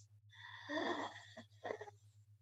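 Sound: imitated heavy breathing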